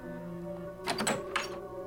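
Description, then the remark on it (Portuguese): A door shuts with a short clattering thud followed by a second, softer knock, heard over a steady low droning hum that continues throughout. “Assim que eu fechei a porta, toda a luz pareceu ser sugada para fora e colocada no quarto anterior.”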